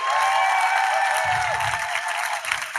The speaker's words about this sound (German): Könntet daher, ihr einmal ganz laut klatschen, dass die denken, wir haben alles richtig gemacht?